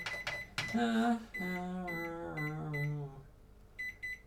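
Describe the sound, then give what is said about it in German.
Short, sharp electronic keypad beeps from a microwave oven being set to 2:30, a few at the start and a quick cluster of three or four near the end, with a drawn-out human voice in between. “Ich hasse diese Mikrowelle.”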